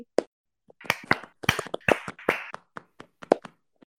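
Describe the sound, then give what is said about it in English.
Soft, muffled hand clapping, a quick irregular patter of dull claps that swells in the middle and thins out toward the end, with no talking. “why are your claps like you're just smashing pillows against one another?”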